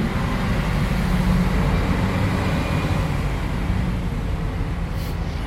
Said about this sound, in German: Also jetzt lassen wir den Laster kurz ja, vorbei.